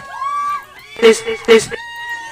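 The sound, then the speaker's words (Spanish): Two loud, brief bursts of shouting and cheering from a live audience, one right after the other, over a steady background of sustained tones. “Que se escuche ese pinche grito”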